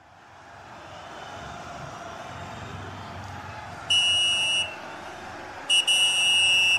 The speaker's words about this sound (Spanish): Silbatazo, señoras y señores, esto no huele, no huele, apesta tiempo extra.